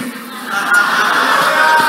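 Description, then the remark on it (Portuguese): An audience shouts together in a loud, continuous roar of many voices that swells after a brief start and holds steady with no clear words or pauses. “Sabe o que, é que Deus disse? Diga o povo que grite.”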